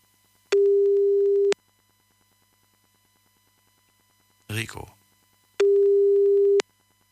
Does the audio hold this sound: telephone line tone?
yes